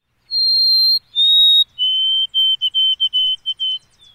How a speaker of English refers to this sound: That's because the white throated sparrow is pretty blah.